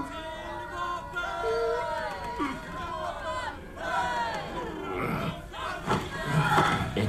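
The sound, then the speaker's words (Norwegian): A crowd shouting in the streets the day after 14 July 1789, many overlapping voices yelling and calling out in loud, rising cries that swell and press together without pause, growing more intense toward the end. “Jean Baptiste sover lenge neste dag, før han blir vekka av rop utenfra.”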